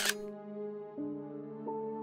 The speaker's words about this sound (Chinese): 而为了让我们五个人都能被照进全身镜里，我们紧紧的互相靠近，才刚按下快门，